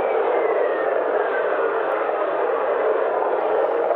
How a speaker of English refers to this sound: Now this is um, this is apparently the sound of lightning on on Jupiter.